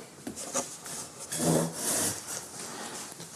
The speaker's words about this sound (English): Can I pull up this other chair with that?